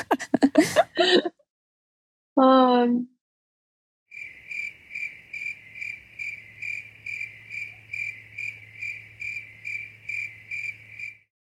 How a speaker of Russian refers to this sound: Звук сверчка вставите сюда.